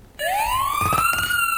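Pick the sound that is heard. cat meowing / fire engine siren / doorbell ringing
fire engine siren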